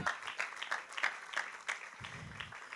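A crowd applauds for the king with steady, dense clapping that rises in bursts, a bright patter of many hands continuing throughout with no voices standing out.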